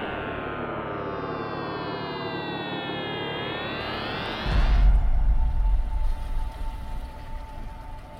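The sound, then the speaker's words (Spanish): A time travel sound effect: a loud, siren-like electronic tone sweeps steadily upward for several seconds, then breaks into a deep boom and a rumbling wash that slowly fades. “Viaje en el tiempo activado.”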